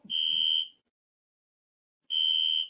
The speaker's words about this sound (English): Uh, oh, they've set off the goddamn fire alarm. Oh. This, you know something? This is the greatest. Take a look out the window in the hallway and see if the place is burning down